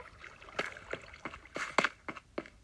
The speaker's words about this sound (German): Ich höre hier Wasser.